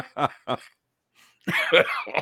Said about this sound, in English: you got me coughing and laughing at you.